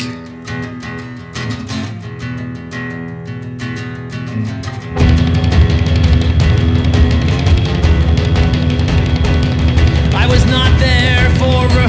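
An indie rock song opens with sparse, rhythmic guitar chords over steady low tones, then the full band crashes in around five seconds, louder and denser with driving drums and distorted guitar.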